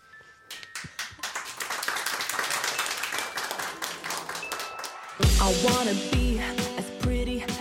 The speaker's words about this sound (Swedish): Återigen en stor applåd. Underbart.